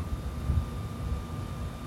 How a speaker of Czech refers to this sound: šum listí z remísku. Vítr vanoucí od hor. Tón blízký C nebo cis o frekvenci 67 Hz.